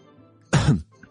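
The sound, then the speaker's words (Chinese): A single short, throaty cough, like a deliberate clearing of the throat, given by vice principal Sun Hai at a banquet table in a story, stands out loudly against a quiet background with no talking. “孙海又咳嗽一声，硬着头皮看向立业。”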